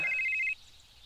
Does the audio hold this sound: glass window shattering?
no